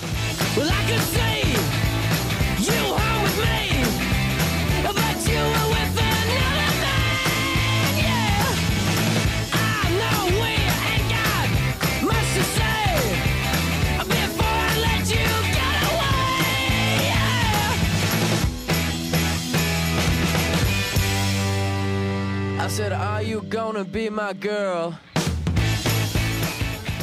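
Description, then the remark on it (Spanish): A loud, driving garage rock song released in 2003, with raw, shouted male vocals over crunchy guitars, pounding bass and drums, ending in a few abrupt crashing hits. “salió en, 2003, era una especie como de garaje, ¿no? Garage rock.”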